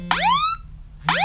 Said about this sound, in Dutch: je activeert de SOS-noodmelding door vijf keer op de aan- en uitknop te drukken. Op dat moment gaat er een alarm af. Nou ja, je hoorde het al even. Dat klinkt zo.